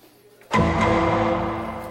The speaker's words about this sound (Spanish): Están poniendo las hojas de papel en una impresora.